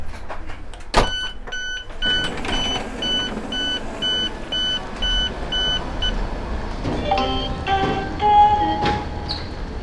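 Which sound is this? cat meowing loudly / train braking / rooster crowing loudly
train braking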